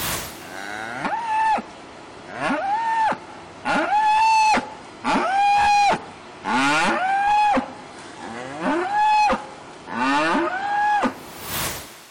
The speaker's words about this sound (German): Denn diese Trennung ist für die Tiere nichts anderes als Stress. Häufig schreien die Kühe und die Kälber danach tagelang vor Trennungsschmerz.